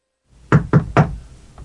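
knocking on a door

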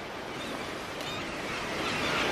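waves

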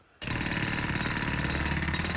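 man snoring loudly

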